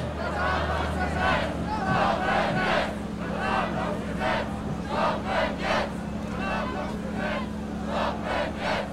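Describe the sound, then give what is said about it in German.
A large protest crowd of several thousand people chants in rhythmic, repeated bursts of many voices, loud and sustained throughout, with a steady low rumble of traffic or machinery underneath. The crowd is marching against an assembly law and crossing a bridge over the Rhine toward Düsseldorf as the sun comes out. “Ihr habt es gehört, sind einige tausend da.”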